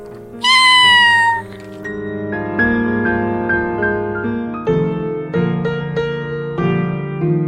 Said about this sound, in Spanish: Este gatito les dice adiós. ¡Miau, miau